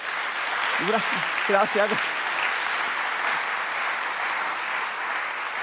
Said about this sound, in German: Ich finde, die haben es gut gemacht. Erstmal einen Applaus für die beiden.